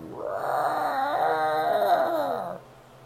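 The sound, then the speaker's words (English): A pastor's voice imitates an animal growling, like a gorilla or Godzilla: one loud, drawn-out cry with a wavering, howl-like pitch, lasting about two and a half seconds before cutting off into quiet. “Pastor's over here sounding like a gorilla and a Godzilla and a, uh, I don't know what other animal he was growling like.”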